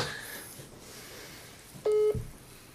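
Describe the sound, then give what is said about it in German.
A single short electronic ringing tone from an outgoing video call to a prepaid mobile phone sounds once, a steady mid-pitched beep lasting a quarter second, loud against faint background hiss with no talking. “Machen wir einen Videoanruf und dann erkläre ich ihm gleich, dass wir hier mitten im Podcast sind”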